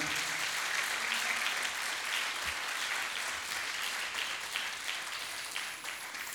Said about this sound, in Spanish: ¿Cuánto le un aplauso al Señor? Déselo fuerte porque es para Él.